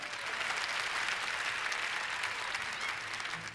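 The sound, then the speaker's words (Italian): Steady, dense applause from a large audience at a live concert, applauding the band, fills the whole stretch, a continuous wash of clapping at even loudness with no voices standing out. “How about a hand for the band?”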